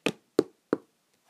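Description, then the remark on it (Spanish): Three sharp knocks on the door of a small house in the forest, evenly spaced, each a short percussive thud with a quick decay, followed by silence. “Llega a la, a la casa y llama a la puerta”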